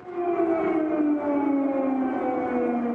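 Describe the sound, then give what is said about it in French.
A loud war air-raid warning siren in Ukraine wails steadily, its tone slowly sliding downward in a long, continuous drone with strong harmonics and no voices present. “C'est un son que nous avons beaucoup entendu ces derniers jours, le son des sirènes de guerre.”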